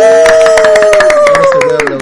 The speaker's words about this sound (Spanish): sí, se puede aplaudir. Me encanta que podamos aplaudir, weón, y que se escuche bien.